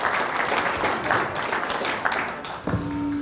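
An audience claps steadily, a dense continuous patter of applause at moderate loudness, with a brief tonal hum creeping in near the end.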